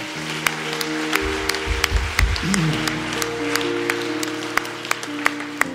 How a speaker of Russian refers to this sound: Знаете, что я хочу предложить вам? Да, дайте им аплодисменты.